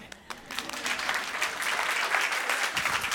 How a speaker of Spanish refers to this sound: Wow. Dense un aplauso.